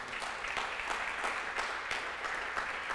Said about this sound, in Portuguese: Dá um aplauso a ele aí por isso.